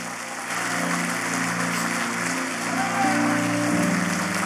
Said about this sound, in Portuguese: Aplauda ele o mais forte que você puder.